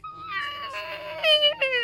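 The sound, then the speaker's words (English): A voice imitates the high, whiny squeal of a stretched balloon neck: a strained, wavering tone that swells louder near the end, breaks briefly, then squeaks again. “So, your vocal cords are actually a pair of tiny little muscles that are crossing your trachea and basically work like the opening of a balloon, where if you pull it and it makes that”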